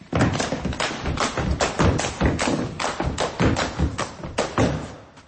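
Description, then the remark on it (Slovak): Dance steps thud on a floor in a steady, quick rhythm, a run of a dozen or so heavy, dull stamps and taps with no voices, fairly loud throughout. “zatancuj, ja to nahrám.”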